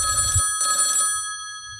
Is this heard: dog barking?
no